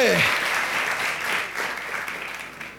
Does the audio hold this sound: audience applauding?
yes